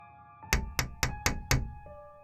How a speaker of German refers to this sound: Es musste so gegen 23 Uhr gewesen sein, als es plötzlich am Fenster klopfte.